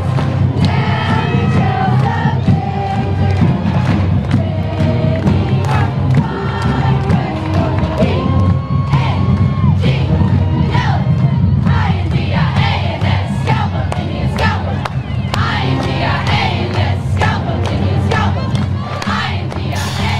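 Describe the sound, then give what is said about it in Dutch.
A high school group, the Indianets of Port Nashes Groves High School, chants a cheer slogan loudly in unison during a pre-parade at the Magic Kingdom, with rhythmic shouted phrases and sharp accents repeating steadily for about twenty seconds, energetic. “Het, eh, de, de leus van de ehm, Indianets van de Port Nashes Groves High School.”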